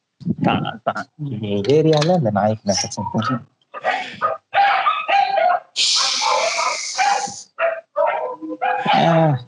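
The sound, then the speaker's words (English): A dog barks and yips in a run of loud, uneven bursts, some with a high whining pitch, while people talk at the same time. “அந்த நாய் தொலைக்குது”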